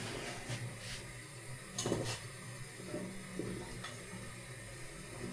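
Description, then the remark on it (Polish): A green-dyed egg wrapped in a heat-shrink sleeve is lowered with a teaspoon at the pot's edge into hot water, with a few light clinks of the spoon against the rim and a soft splash over a steady simmering hiss. “I z pomocą łyżeczki przy brzegu garnka Wprowadzam do wody.”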